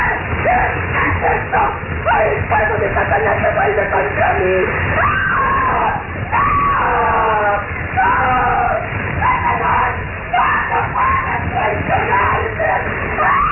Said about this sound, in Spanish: En un segundo, las ropas andracosas de la bruja ardieron terriblemente. Se convirtió en tea humana y sus gritos enloquecidos resonaban en el cementerio.